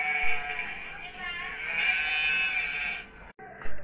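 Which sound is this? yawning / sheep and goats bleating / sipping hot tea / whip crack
sheep and goats bleating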